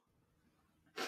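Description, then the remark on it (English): A single sharp sneeze bursts out loudly right at the end, following a moment of quiet low background rumble. “And like bless you.”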